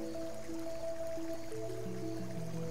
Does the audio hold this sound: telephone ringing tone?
no